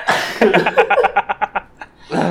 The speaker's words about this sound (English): I'm gonna sneeze here. I'm not gonna cut it.